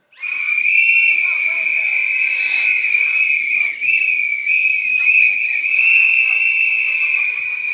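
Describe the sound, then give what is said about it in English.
Audience members blow whistles at once in answer to a straw poll, a dense, sustained chorus of high-pitched blasts lasting several seconds, loud and overlapping, with faint crowd noise underneath. “Does anybody, you, can you blow your whistle if you comfortably, happily use sex toys with your partner?”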